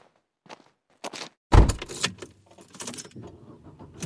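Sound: keys jangling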